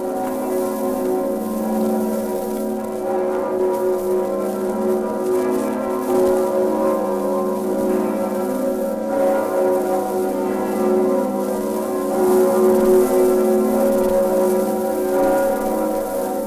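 Church bells ring continuously, their tones overlapping into a steady, resonant wash of sound that holds at an even, fairly loud level throughout, with no voices. The bells carry the Latin call 'Vox mea, vox vitae, vos voco ad sacra venite' ('My voice, the voice of life, I call you to holy service').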